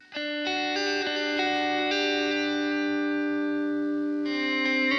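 A slow instrumental intro to a cover version of a song: sustained, shimmering chords with a chorus-like effect change every second or so, holding steady and fairly loud with no singing yet.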